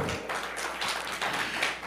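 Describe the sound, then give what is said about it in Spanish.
A church audience breaks into steady applause for the Lord during a worship service, a dense, continuous wash of many hands clapping at an even loudness for about two seconds, with no voices heard over it. “Démosle un aplauso al Señor, por favor.”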